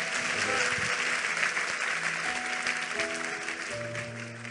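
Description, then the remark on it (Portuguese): An audience applauds God at the end of an evening church service, a dense wash of many hands clapping that holds strong for several seconds before easing slightly, with sustained low organ-like tones underneath. “Vamos aplaudir a Ele.”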